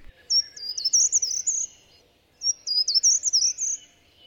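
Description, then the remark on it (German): Two bright, fast-trilling bird songs ring out clearly in the quiet Ennertwald, a nature and bird reserve in Beuel, Bonn, Germany, on a Saturday morning in early October, each phrase lasting about a second and a half with a short pause between, over faint soft background ambience. “Der Ennertwald, Anfang Oktober, ein Samstagvormittag. Es ist ruhig geworden in dem Beuler Natur- und Vogelschutzgebiet, denn es ist Herbstanfang und viele Vögel sind bereits weggezogen.”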